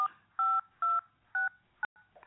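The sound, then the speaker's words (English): Telephone keypad tones beep as a zip code is entered into an automated phone system: five short dual-tone presses in an uneven rhythm, clear, with no one speaking. “Now enter your zip code.”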